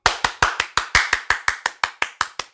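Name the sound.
applause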